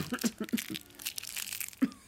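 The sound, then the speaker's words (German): A candy wrapper crinkles among coughing concertgoers during a concert, in a steady run of dry, irregular crackles over two seconds, with a few soft low thumps mixed in and a sharper crackle near the end. “leise durch den Husten und das Bonbonpapier und die ganzen anderen Konzertbesucher gar nicht mehr so richtig hören konnte?”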